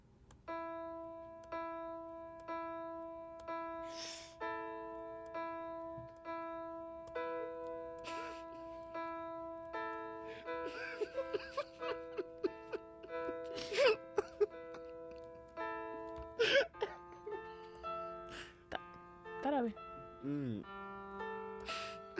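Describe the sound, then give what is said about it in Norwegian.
A slow, simple piano melody played hesitantly by a beginner who has practised for only a few hours, with long held notes and uneven pauses. Occasional clicks and small knocks sound in the second half, and no one talks. “Det er ikke lett å lære seg piano, Nei.”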